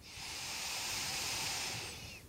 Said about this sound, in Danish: Så finder du tre vejrtrækninger her. Ind gennem næsen.